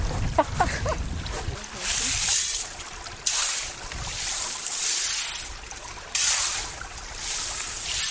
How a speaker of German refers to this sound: Damit kann ich meinen eigenen Staudamm schaufeln und das mache ich jetzt mal.